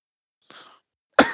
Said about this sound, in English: oh my God, my cough has just been fucking terrible.